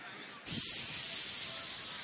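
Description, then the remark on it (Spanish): A person makes a loud, steady hissing sound with their mouth to imitate a spray paint can, as used by a woman scrawling on the wall outside a house. It starts abruptly after a brief pause and holds unbroken for more than a second and a half. “Y miro de repente por la ventana y hay una mujer afuera de mi casa, con un spray, rayándome la pared, así.”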